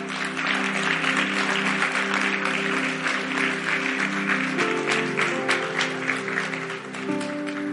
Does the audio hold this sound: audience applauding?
yes